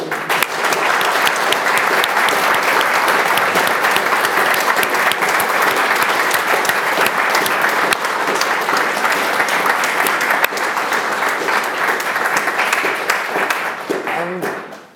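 A large audience applauds steadily for about fifteen seconds at the end of a talk, a dense, continuous wash of many hands clapping at once, loud, tapering off right at the end.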